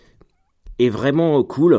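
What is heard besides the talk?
rooster crowing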